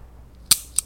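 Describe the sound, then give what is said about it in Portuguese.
Two crisp clicks of a four-color ballpoint pen as it is opened, the first sharper and the second a moment later, over a quiet background with no talking. “Isso aqui é o barulho de uma caneta, de uma caneta abrindo. É uma caneta de quatro cores.”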